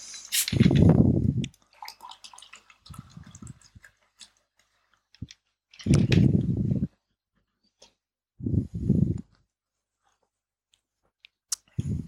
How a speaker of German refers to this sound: Gut, schenke ich mir mal was an noch.